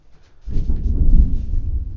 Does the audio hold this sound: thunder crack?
yes